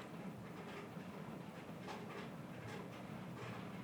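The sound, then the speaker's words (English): Steady rain patters on the roof above a second-floor room, a soft, even hiss with faint scattered taps that never lets up. No one speaks. “So, and it's raining now, and you can hear it because I'm on my second floor and it's the roof.”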